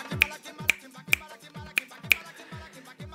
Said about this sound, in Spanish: la salsa tiene una base indiscutible, que es la clave de son. Y está pues ya mucha gente, y para el que no conozca, menos mal se está informando en este momento, la clave de son es eso que siempre hemos escuchado como